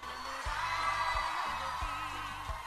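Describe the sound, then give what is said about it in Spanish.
A crowd claps and cheers as an applause vote to choose the host site of the next women's gathering (encuentro de mujeres), in a steady, dense wash of applause that holds at an even level throughout, with occasional whoops rising above it and low thumps underneath. “Bueno, y lo que estamos escuchando acá es el aplausómetro, que es la modalidad a partir de la cual se define en qué lugar se va a desarrollar el próximo encuentro de mujeres, o sea, cuál va a ser la nueva sede para el futuro encuentro”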